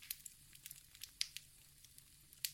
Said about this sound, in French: Les bûches plus humides émettent des sifflements, d'autres claquent sous l'effet de la chaleur. Parfois, il y a des petites escarbilles qui s'échappent dans la nuit.